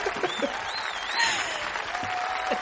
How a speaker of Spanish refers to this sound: Y por último, aquí tenemos a nuestro cordobés de ojos verdes y pelo alborotado. Pido otro aplauso